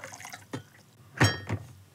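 Short splashes of warm water being poured into cups for drinking, a few quick bursts of liquid with gentle drips between them, no one talking.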